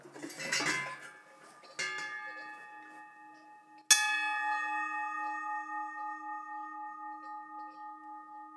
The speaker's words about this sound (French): Vous avez les cloches en bronze, là.